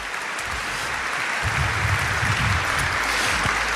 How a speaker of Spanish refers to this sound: Un aplauso a Dios por ellos y por ella, por favor. Gracias.